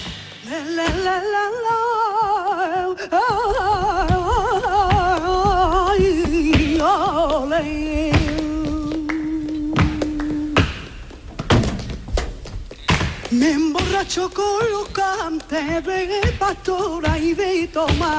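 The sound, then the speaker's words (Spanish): Sharp, rhythmic flamenco heel stamping (taconeo) by a female flamenco dancer from Málaga rattles out in quick bursts and steady patterns, loud, beneath a sustained, wavering sung vocal line with music. “ese taconeo que estamos escuchando es el de la gran Rocío Molina”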